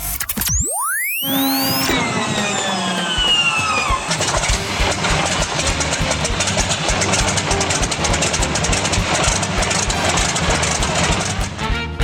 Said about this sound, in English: the old uh, P40 starting up there